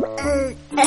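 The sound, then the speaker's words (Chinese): A hungry stomach growl from a character who has not eaten all night, apparently imitated by a voice: a low, buzzy, tonal rumble lasting under a second, dipping briefly before rising again into a second gurgle. “嗯，是我肚子叫的声音啦。”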